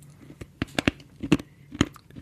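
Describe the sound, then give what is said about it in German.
Wet mouth smacking and chewing noises, an irregular series of sharp, clicky smacks with short pauses between, some louder than others, with no talking. “Schmatzen, das ist wollte ja ich schon immer machen.”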